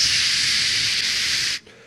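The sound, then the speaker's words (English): A voice imitates a pressure cooker's hiss with a steady, loud, breathy 'shhh' held for about a second and a half, then cut off abruptly, with no other sounds around it. “What are those things called? The pressure cooker? It's going.”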